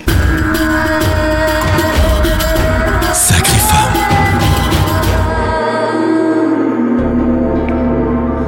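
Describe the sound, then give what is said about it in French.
A short, loud intro jingle: dense, energetic music with a bright burst in the middle, settling into a sustained tonal chord that rings out at the end. No one speaks. “C'est un sacré parcours et c'est tout de suite après le jingle.”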